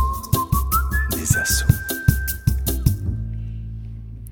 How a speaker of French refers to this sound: juste après le petit jingle des … qui sont membres de la Maison des Associations et qui nous ont fait ce petit jingle que tout le monde adore pour le son des assos.